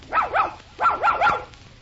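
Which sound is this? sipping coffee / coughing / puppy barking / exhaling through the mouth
puppy barking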